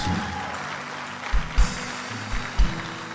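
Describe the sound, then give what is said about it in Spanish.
An audience applauds God in a steady, dense wash of clapping that holds evenly for a few seconds, broken by a handful of dull low thumps. No one speaks over it. “Yo sé que no es fácil aplaudir a Dios, pero por lo menos 20 van a aplaudir a Dios.”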